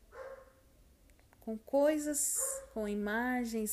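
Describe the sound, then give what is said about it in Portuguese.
A dog barks twice in the background, two drawn-out, yelping barks with a pause between, while a person keeps talking over them. “perdoa o cachorro latino, ele sempre quer participar.”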